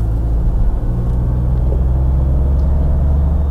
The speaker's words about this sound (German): Aber in einem Dacia Dreizylinder, das passt wirklich gut zusammen. Und er ist auch nicht extrem laut. Also ich bin kein Fan von Dreizylindermotoren, aber er stört mich nicht im Mindesten.